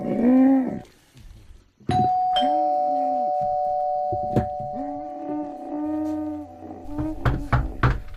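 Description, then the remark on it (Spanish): A doorbell chimes, its bright tone ringing and lingering for several seconds, while sharp knocks and clatter punctuate the background. “Han llamado.”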